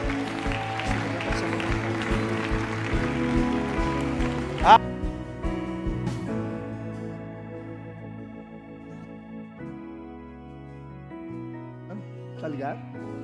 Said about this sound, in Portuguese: Glória a Deus, aplauda ao Senhor.